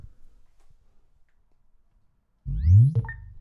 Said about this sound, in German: Also sie macht immer einen schönen Willkommenssound und auch einen Abschiedssound. Ich, ich versuche das jetzt mal zu demonstrieren.